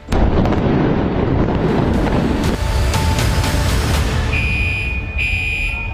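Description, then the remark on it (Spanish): A building in the United States collapses, its floors falling one onto another like a stack of pancakes, crashing down in a loud, continuous roar of rumbling debris that eases after a few seconds, leaving a lingering noisy wash with faint high ringing tones. “A la 1 y 22, el edificio se desplomaba como una torre de panquecas, cayendo un piso sobre el otro, convirtiéndose en el derrumbe más mortífero en la historia de Estados Unidos.”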